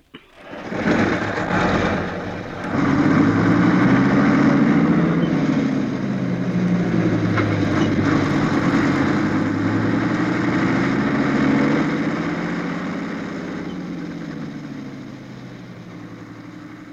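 A truck engine starts up and revs, settling into a steady, loud rumble with shifting pitch as it pulls away, then fades gradually over the final seconds.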